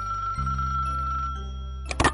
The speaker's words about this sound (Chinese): 有一天，他正在睡觉，叮铃铃，他的电话响了。